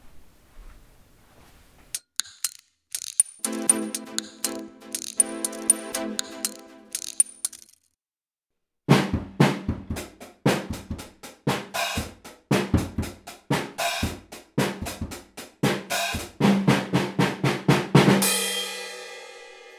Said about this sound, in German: Ja, also nochmal sorry für mein äußerst mittelmäßiges Schlagzeugspiel auf diesem Kinderschlagzeug. Aber ich denke, es macht schon mal ganz gut Lärm in verschiedenen Frequenzen.